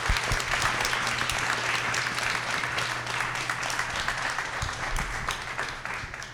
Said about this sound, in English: Let's give another round of applause for our panelists. Thank you so much.